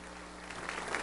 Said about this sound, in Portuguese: Você pode aplaudir o Senhor? Você tem que aplaudir, você tem que vibrar.